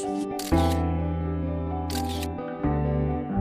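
Two sharp bursts of camera shutter clicks from a visually impaired Brazilian photographer, crisp, ring out about a second and a half apart over a steady, sustained musical tone that continues underneath.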